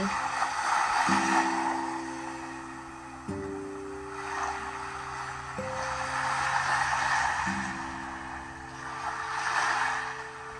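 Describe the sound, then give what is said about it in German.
Ocean surf rushes onto a deserted beach in slow, rolling swells that rise and fade every few seconds, layered over soft, sustained music chords that shift now and then. No one speaks. “Der Strand ist menschenleer. Du hörst die Wellen rauschen.”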